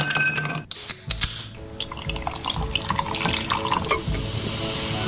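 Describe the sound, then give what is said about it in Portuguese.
A fizzy drink glugs steadily out of a can into a glass, with a bright crackling hiss of bubbles running under the pour for several seconds. “A este som segue-se normalmente outro som também épico. Vamos ouvir tudo. O verter.”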